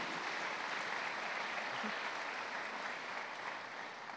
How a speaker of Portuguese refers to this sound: Por isso, dê uma salva de palmas para aqueles que estão aqui conosco, para aqueles que estão construindo a igreja, para aqueles que estão fazendo alguma coisa.